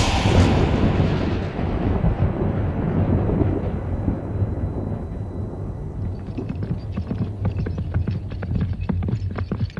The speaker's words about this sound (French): En plus, certains habitants maîtrisent un art magique diabolique qui leur permet de déclencher, quand ils le souhaitent, des orages, des tempêtes et de gros coups de tonnerre.